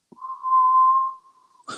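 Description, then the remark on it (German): Someone imitates whistling in a minor key that was heard in a dormitory, holding one steady, mid-pitched note for about a second and a half; it swells in the middle and fades, then a short breathy burst follows. “Es pfeift gerade wirklich in meinem Schlafsaal.”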